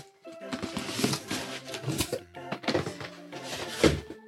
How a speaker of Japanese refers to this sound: これ今段ボール開けてんだけど直哉くんから送ってもらって開けてんだけどあの普通段ボール上から開けんのになんか私下から開けてしまった全然あかんあ開いためちゃくちゃでかい